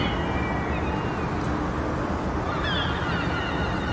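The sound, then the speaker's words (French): A steady, dense wash of urban waterfront ambience from a video game, with low rumble and faint high cries drifting over it, like a busy harbor with a boat horn blended into the background. “Ça, c'est un extrait de Spider-Man PS4”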